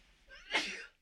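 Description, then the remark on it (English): A single sharp sneeze bursts out, a quick breathy build-up snapping into a loud, hissing burst that fades within a second, with no talking around it. “Bless you. Bless you.”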